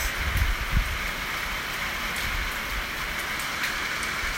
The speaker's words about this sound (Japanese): えー、まあこういった雨の音もねあの日記みたいにねこう撮っておくといいじゃないですかよくさ写真とか撮るでしょスマホで、まあ、そんな感じで音の写真みたいな感じで今ねせっかくなんで せっかくの記念なんで雨の音を撮っておきます